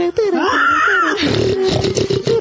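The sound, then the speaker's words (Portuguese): A man's voice imitates a pig, starting with a drawn-out whiny squeal and breaking into rough, snorting grunts that continue loudly for a couple of seconds. “Quero ver agora um porco.”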